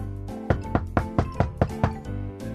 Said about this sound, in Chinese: 叩叩叩！突然有人敲了敲门，纷纷打开门后看到一只有彩色羽毛的小鸟，是他的好朋友波波。